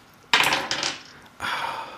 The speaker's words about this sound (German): Und wir würfeln darum, wer als nächstes einen Fall erzählen darf.